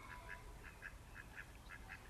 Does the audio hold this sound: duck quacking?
yes